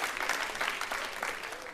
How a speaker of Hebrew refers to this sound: נכון, מחיאות כפיים ליובל שהגיע אלינו להתארח.